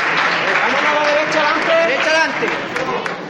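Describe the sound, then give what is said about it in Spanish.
A dense crowd at a procession loudly shouting the first vivas as the Jesús Caído image goes up the exit ramp toward the street, overlapping voices rising in cheering bursts over a steady roar of murmuring and scattered clapping that holds throughout. “La gente no, no puede esperar a que Jesús Caído pise la calle para, para gritar los primeros vivas.”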